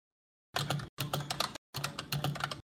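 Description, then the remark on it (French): Three quick bursts of rapid, fairly loud typing on a computer keyboard, with brief pauses between them and no voices, as someone searches the Internet. “il y en a, il tape, sur Internet pour savoir ce que c'est.”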